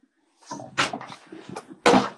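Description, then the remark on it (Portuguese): Clunks and rattles of a door being handled and pulled open, with a sharp knock near the start and a louder thud at the end, no talking. “Abre a porta ali, então.”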